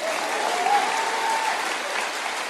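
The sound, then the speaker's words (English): A church audience bursts into steady applause at news that the church will match donations to a charity, many hands clapping in a dense, even roar that holds at a constant level throughout, without any voices standing out. “So, this money that's going to be given, go on then, let's give a clap.”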